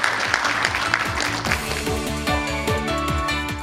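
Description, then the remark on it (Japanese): A burst of audience applause at the end of the Copro Holdings IR seminar, dense and steady at first, quickly gives way to upbeat background music with a pulsing bass line that carries on to the end. “皆様盛大な拍手をお願いいたします”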